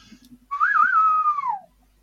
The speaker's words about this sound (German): ich mache jetzt einen Test. Ich roll einmal oh nein. zwei Meter zurück und pfeife.